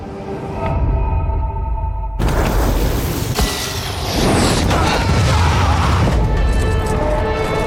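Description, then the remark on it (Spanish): Loud, dense cinematic sound effects from the trailer for the sci-fi film Dune: deep sustained booms and rumbling with sharp crashing hits and tonal drones layered throughout, with no speech. “Bueno, el sonido de Dune, una película de la que os venimos hablando en Quinótico desde el Festival de Venecia”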